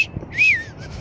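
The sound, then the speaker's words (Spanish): A single fairly loud whistled catcall, a quick swooping tone that rises then falls, imitated by a person's mouth to mimic a man whistling at someone walking in the street, followed by a faint trailing note and quiet background noise. “Una vez iba a caminar en la calle con unos shorts muy lindos y nada más vi como un güey me chifla, así como...”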